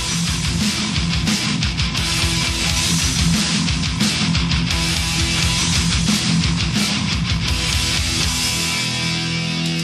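Loud, dense thrash metal plays continuously, with fast pounding drums, heavily distorted guitars and crashing cymbals filling the whole stretch at a steady, aggressive intensity.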